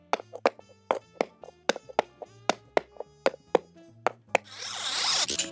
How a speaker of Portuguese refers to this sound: começando com o som misterioso da semana passada, que estava bem facinho, que era um galope de um cavalo, mais um elemento aí que apareceu no filme da Barbie.